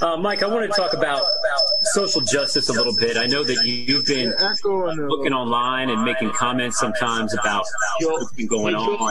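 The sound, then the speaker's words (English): A man, a CBS 21 reporter, talks steadily over a remote call line, his voice smeared by a trailing echo that doubles each phrase, while a thin high whine hums faintly through the first half. “You're echoing a little bit.”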